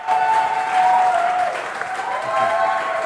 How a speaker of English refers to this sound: Help give a big applause for Freimut Haverkamp.